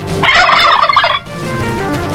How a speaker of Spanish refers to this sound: Obviamente tenías que escuchar la programación y al escuchar el sonido del pavo